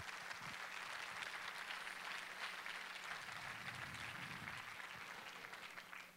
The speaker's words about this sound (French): Je pense qu'on peut applaudir le Seigneur encore une fois.